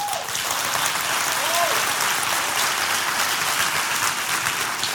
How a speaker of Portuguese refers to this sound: Você quer dar uma salva de palmas para a Bíblia agora?